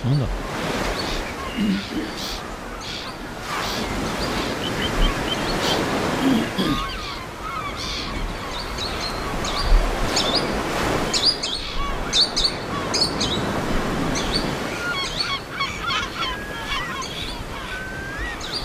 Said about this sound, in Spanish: Este andarríos grande se ha equivocado de orilla y en vez de correr por una orilla de un río, está corriendo por la orilla del mar, en Cantabria también.